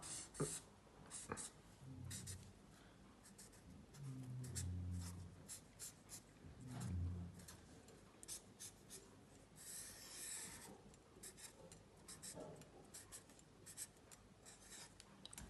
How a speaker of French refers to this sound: Prends ta feuille blanche et dessine l'animal de ton choix. Moi, je vais dessiner un lapin.